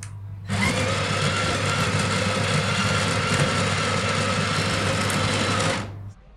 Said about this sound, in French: Donc là, je me suis axé sur la finesse de mouture 2. Et ensuite, je mets mon café dans ma trémie et c'est parti pour l'expérience. Le porte fil se met en dessous du moulin et va moudre automatiquement dedans.